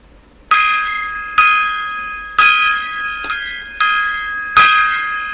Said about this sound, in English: All right, gongs, gongs everywhere, a gong.